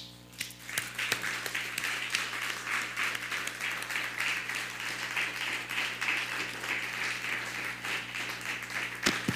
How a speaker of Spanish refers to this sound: Bueno, pues vamos a, dar un fuerte aplauso a las naciones.